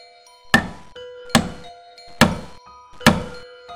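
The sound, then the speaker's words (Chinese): Four heavy, dull knocks on a door, evenly spaced at a slow, deliberate pace, each one loud and thudding, with a faint steady drone humming underneath. No one speaks. “此时不绝于耳的敲门声不见了”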